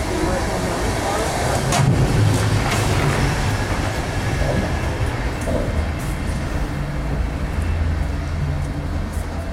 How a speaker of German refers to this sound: Allein, dass du durch diese Übergänge gehst und wirklich die Räder und alles authentisch hörst